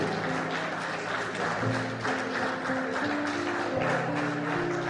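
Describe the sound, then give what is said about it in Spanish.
An audience applauds the Liceo Bicentenario Técnico Profesional de Pugutú as it receives a plaque. The applause lasts steadily for about five seconds, a dense, even wash of clapping with no talking, while sustained musical tones play underneath. “Un fuerte aplauso para el Liceo Bicentenario Técnico Profesional de Pugutú.”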